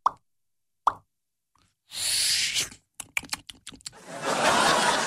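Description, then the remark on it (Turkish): A voice imitates a cola bottle cap being opened: two sharp mouth pops, then a hissing burst, a quick series of clicks, and a long fizzing hiss, all fairly loud with no talking. “Kola kapağı açma sesi.”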